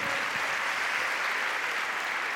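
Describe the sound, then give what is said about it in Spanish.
Steady applause from a religious convention audience clapping for God, a dense crackle of many hands clapping at once that stays loud and even throughout, with no voices standing out. “Sí, puedes aplaudir si es para Dios, hazlo más fuerte.”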